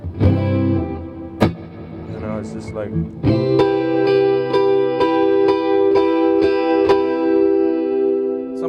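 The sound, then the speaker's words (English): A brief spoken phrase gives way to a saturated electric guitar through an amp, blended with a clean DI signal, strumming loud sustained chords in a steady repeating rhythm, each one ringing out into a lush reverb tail. “the with the sort of like you know a bit of like you know a bit of saturation Amp in sound. the low end and and the really nice tail of the reverb, you know.”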